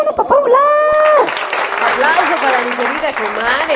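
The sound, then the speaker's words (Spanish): An audience at the show After Passion breaks into steady, loud applause for a singer, filling the whole stretch, with whoops and cheering voices rising over the clapping at the start and scattered shouts continuing underneath. “Un aplauso.”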